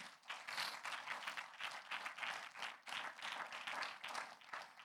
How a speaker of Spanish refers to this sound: Digan el nombre de Jesús. Un aplauso al Señor.